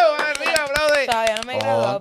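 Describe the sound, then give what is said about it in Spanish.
Steady, rhythmic hand clapping to celebrate someone graduating from high school (bachillerato), quick sharp claps in an even beat, running beneath sustained voices that cheer or sing over the top throughout. “Vamos, aplaude, aplaude, que se graduó.”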